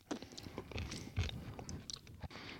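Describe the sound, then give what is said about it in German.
Crunchy chewing on candied hazelnuts with a thick sugar crust, with repeated irregular crackling bites and grinding, fairly loud throughout, with a heavier crunch around the middle and no talking. “Ich kann eine ganze Tüte Haselnuss hier gebrannte essen oder auch vom Raffaello leerlutschen.”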